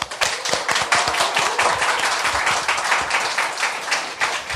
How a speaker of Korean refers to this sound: 국민TV 시사토크 맘마이스 여러분의 힘찬 박수와 함께 시작하겠습니다.